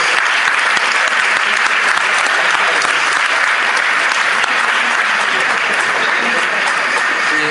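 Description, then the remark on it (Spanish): Loud, sustained applause from a large audience of children, women and teenagers fills the whole stretch, a dense crackle of many hands clapping steadily without letting up. “En este momento recibe el homenaje de infinidad de niños, señoras, y adolescentes.”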